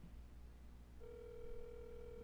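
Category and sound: signal or alarm, outgoing phone call ringing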